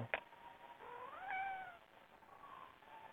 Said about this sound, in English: Meow, meow, meow.